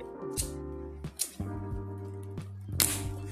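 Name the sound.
cigarette lighter being flicked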